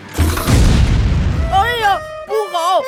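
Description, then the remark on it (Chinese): A super vacuum cleaner, swollen up like a balloon from sucking in lots of food sprayed by a food machine, bursts with a single loud, deep bang that rumbles and fades over about a second, then high, sliding voices chatter excitedly right after. “吸尘器吸了好多好多的食物进去，可是美食机喷洒食物的速度越来越快，超级吸尘器吸呀吸，最后像气球一样膨胀起来，砰的一声，爆炸了。”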